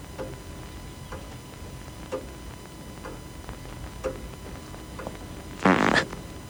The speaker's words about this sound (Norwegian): og så er det enda en sekvens hvor … fiser ved bordet.